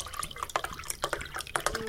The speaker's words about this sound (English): Uh, can we compare and contrast with a real wine bottle pouring sound effect?